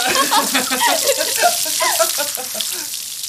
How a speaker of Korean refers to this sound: 여름날 땀 흘린 뒤 시원한 찬물 샤워.